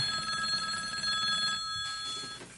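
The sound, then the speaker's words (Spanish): A telephone rings insistently with an incoming call, its bright, steady electronic tones repeating in quick pulses, clear and with no talking over it, until it cuts off near the end. “bueno, yo pensé que no íbamos a tener llamada hoy, pero parece que sí. Bueno. Bueno, es insistente.”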